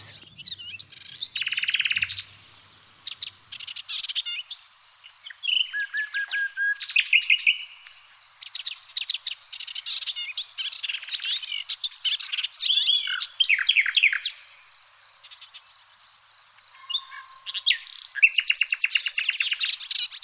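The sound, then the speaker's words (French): A Hippolais warbler sings a long, rambling song of rapid, varied chirps, whistles and chattering phrases, clear, running continuously for about twenty seconds with no voices. “Je vous laisse en compagnie de la plus zen des musiques le rossignol Hippolaïs.”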